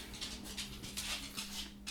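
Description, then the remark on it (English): A pet dog scrapes and shuffles around, making a series of soft, rhythmic scratchy bursts over a faint steady hum, with no one talking. “If you can hear any scraping, it's like my dog suddenly.”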